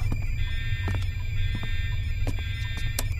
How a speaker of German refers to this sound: Schalte den Alarm aus